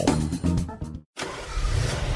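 A car engine cranks and revs with a rising whine, cuts out for a brief moment, then settles into a steady rumbling drive with road noise, fairly loud.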